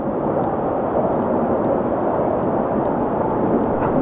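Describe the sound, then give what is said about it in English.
Loud, steady wind rushes and roars through forest branches, a continuous dense whoosh with no pauses, a few faint ticks flickering above it and no voices. “really loud and really aggressive, and you can hear it whistling through the branches.”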